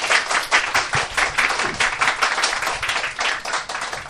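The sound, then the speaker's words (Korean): Congratulatory clapping from a small group welcoming a returning guest on the show Tak PD's Travel Talk, a steady, dense patter of hand claps lasting several seconds at a fairly loud, even level, with no voices over it. “다시 한번 어, 축하의 박수 한번 부탁드릴게요.”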